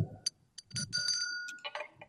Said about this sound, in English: This, this bell is kind of creepiness.